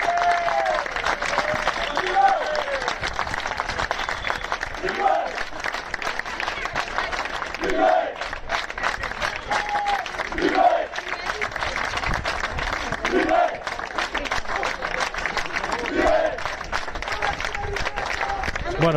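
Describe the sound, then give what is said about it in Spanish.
Hundreds of Sestao River football fans cheer and shout continuously while blocking the team bus as the players get off, a loud dense roar of many voices with clapping, swelling rhythmically every few seconds as if chanting together. “con cientos de aficionados del River que de hecho bloqueaban el autobús y luego ya sí, unos segunditos después, ya bajaban los integrantes de la expedición verdinegra.”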